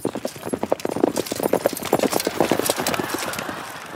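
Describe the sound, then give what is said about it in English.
Horse hooves clip-clop in a brisk, steady rhythm as a horse-drawn cab arrives, loud at first, then blurring into softer, denser rustling as they continue; no one speaks. “My cab arrives to pledge safe passage.”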